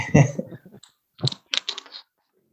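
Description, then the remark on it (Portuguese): A laptop charger being plugged in: a few short clicks and rustling bursts of handling noise, with a brief murmured voice at the start, then quiet. “Um, desculpa, eu tenho que pôr o computador carregado, senão isto vai”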